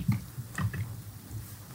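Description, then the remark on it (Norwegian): A few soft, irregular clicks of typing on a keyboard, quiet, with short pauses between keystrokes and no voices. “jeg hører du taster, du har ikke lov å taste.”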